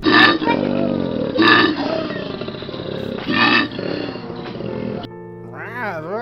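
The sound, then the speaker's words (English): A person does a loud, growling, snorting bellow in imitation of a koala, rising and falling in throaty bursts for about five seconds before a brief higher wavering vocal sound. “what does a koala bear sound like?”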